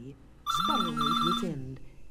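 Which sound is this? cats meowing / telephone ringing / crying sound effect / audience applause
telephone ringing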